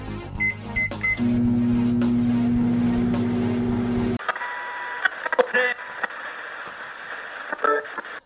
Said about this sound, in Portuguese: Com isso, vocês vão levar o prato para o micro-ondas e colocar para esquentar em um minuto e meio.